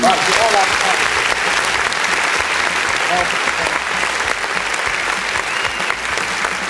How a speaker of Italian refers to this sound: dobbiamo fargli un applauso. Eccolo qui.